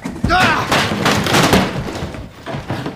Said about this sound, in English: With a great shout, Athos broke one of the windows and jumped through. At the same time, D'Artagnan broke down the door,